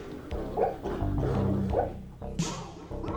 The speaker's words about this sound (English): Wait, guys, that's a dog dream.